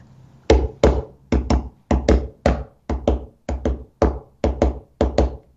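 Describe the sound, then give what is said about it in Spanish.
A zortziko, an irregular Basque folk rhythm in 5/8 as in Agur Jesusen Ama, tapped out as sharp, hollow knocks, falling in uneven groups of two and single beats that repeat steadily for about sixteen hits, with no voices. “Efectivamente, el sorchico es un ritmo de, un compás de 5 por 8.”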